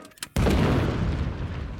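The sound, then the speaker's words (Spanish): A tank cannon fires once with a sudden, heavy boom, followed by a loud, rumbling roar that lingers and slowly fades. “También es capaz de resistir el cañonazo de un tanque desde dentro del cañón”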